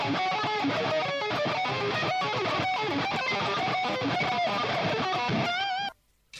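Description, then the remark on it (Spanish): Loud, heavily distorted electric guitar, with the distortion turned up further and played faster, plays a fast, busy run of notes with a harsh, buzzing, saturated tone, then cuts off abruptly into near silence just before the end. “Todos siempre queremos demasiada distorsión, güey, hasta llegar al punto de el legendario mosquito Super Saiyajin,”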